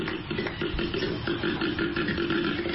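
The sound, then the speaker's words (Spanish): A koala bellows in a deep, continuous rumbling drone with rough, pulsing grunts, steady and fairly loud throughout, with no other sounds or voices. “¡A ti suena un koala.”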